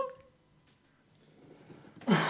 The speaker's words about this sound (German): Gesundheit! nee. Ja, das war ein Huster. immer wenn ich huste, Allergie, immer wenn ich jetzt huste, sage ich, das war mein Asthma. Stimmt auch zu 90 Prozent von daher.